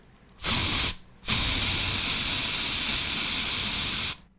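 An aerosol can sprays in two hissing bursts, a short half-second puff followed by a steady three-second spray, loud with no voices.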